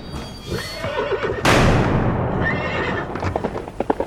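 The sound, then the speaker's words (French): A horse galloping and whinnying loudly, its neigh rising and falling, while hoofbeats clip-clop rhythmically underneath, growing into a sharp series of distinct hoof strikes toward the end. “Il galope, galope, galope.”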